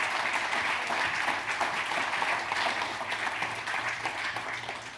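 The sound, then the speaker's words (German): Sustained audience applause, a dense wash of many hands clapping at a steady level for about five seconds, with no one speaking over it. “Vielen Dank, Herr Schumacher. Applaus”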